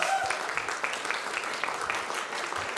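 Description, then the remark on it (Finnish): Audience applause, a steady dense patter of many hands clapping at moderate loudness, continuous throughout with no pauses. “Me annetaan isot aplodit.”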